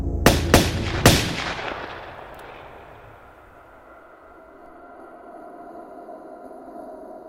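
Three sharp gunshots ring out in quick succession, loud, each followed by a long echoing decay that fades into a low, quiet rumble.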